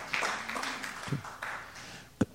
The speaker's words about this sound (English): I'm gonna let y'all get y'all hand clap out on that one.